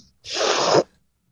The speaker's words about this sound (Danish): Øh, det var et russiske snøft her ja, det var til sidst.